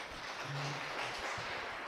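An audience applauds the lecturer after a lecture and question-and-answer session, a dense wash of many hands clapping at an even, fairly soft level for the whole stretch, with no voices standing out.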